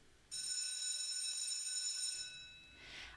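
A bright electric school bell rings for morning tea, continuous for about two seconds, loud and steady with a metallic buzz, then cuts off, leaving faint room noise behind.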